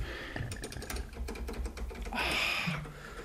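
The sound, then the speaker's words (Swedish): Rapid clattery typing on an old computer keyboard connected to a Mac, a dense run of sharp key clicks, with a brief louder burst of clacking near the end. “på tal om gamla grejer, du, du, ditt tangentbord”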